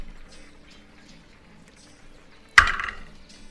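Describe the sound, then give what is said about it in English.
A single sharp wooden knock against a door, loud and sudden, ringing out briefly over a quiet, low background hum with no talking. “so you go and uh, you knock on Cassie's door”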